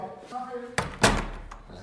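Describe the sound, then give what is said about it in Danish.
A door slams shut with a heavy, sharp bang, a smaller knock just before it, following a moment of murmured speech; the slam's boom lingers briefly. “Nå, det var bare lige, du smækkede den dør og sådan.”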